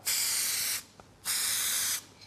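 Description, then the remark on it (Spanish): Two bursts of aerosol spray paint hissing from a can while doing graffiti, each lasting under a second, broad and steady, separated by a brief pause with a faint click. “pues no se me daba esto del graffiti, me cuenta?”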